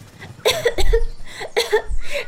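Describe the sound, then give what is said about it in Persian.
A person coughs in a quick series of about four harsh bursts, the last ones coming in a tight pair, with no talking around them. “خرگوش کوچولو در حالی که سرفه کرد گفت”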